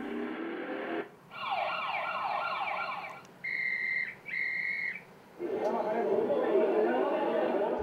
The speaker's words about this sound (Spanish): qué cantidad acústica nos está aportando el tráfico, el murmullo de la gente, las actividades comerciales, los silbatos.